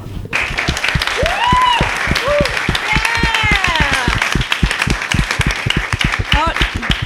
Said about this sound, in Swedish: Men framförallt tack så mycket till publiken, ni var underbara. Eh, applådera er själva!